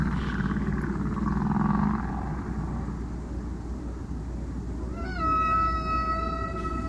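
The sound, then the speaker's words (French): A humpback whale sings in long, sliding moans over a low rumbling underwater backdrop, then a clear harmonic tonal call rings out near the end, with a hollow, reverberant deep-water echo. “Là, par exemple, dans, sur, cet enregistrement, on peut entendre euh, une, réverbération qui est due à la profondeur de l'eau.”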